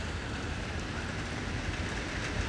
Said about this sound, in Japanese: 大雨に降られてしまいまして上高地、えー、サービスエリアで雨宿りをしていますと言っても夕方5時まで雨は止まないらしいので、えー、これから南下する中で東京に向かえば向かうほど雨が強くなるということなので